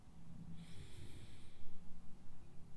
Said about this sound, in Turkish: Derin bir nefes al. Nefesini verirken kalbini, göğsünü serbest bırak, rahatlat.